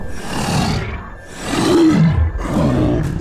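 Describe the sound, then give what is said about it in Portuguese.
A giant maned wolf, a mystical creature said to guard the portal to the Green Lands, roars loudly in a few rough, rumbling bursts, the last one dropping into a deep, growling snarl. No one speaks. “Ah, deve ser esse lobo guará gigante, né?”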